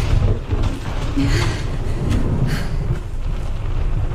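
Deep, continuous thunder rolls, echoing and re-echoing in a vast, empty stone chamber of a cave. It is a loud, heavy, overwhelming rumble that barely lets up across the whole stretch, with no voices.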